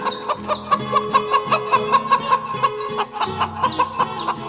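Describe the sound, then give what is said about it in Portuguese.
Several hens cluck and cackle busily together, a dense overlapping chatter of short calls over a soft musical backing, with no talking. “E era cocorocó pra lá, cocoricó pra cá. Elas cochichavam, cacarejavam.”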